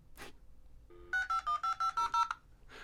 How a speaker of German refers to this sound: Oh ja, das Geräusch kenne ich gut. So, das, so ging es damals los mit dem Internet, ja. nämlich das Modem. Und es, es klingt jetzt so ein bisschen wie so ein abstürzender Kriegshubschrauber, finde ich. so fing jede Chat-Session an.